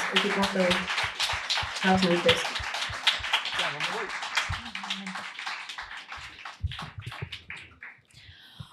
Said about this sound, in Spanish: Vos despido con un fuerte aplauso y hasta la próxima.